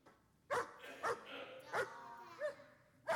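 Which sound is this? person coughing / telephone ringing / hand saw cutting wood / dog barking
dog barking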